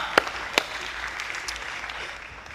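An audience applauds a singer after a worship song in a dense, steady wash of clapping, with a couple of sharp louder claps near the start standing out above the crowd; no one speaks.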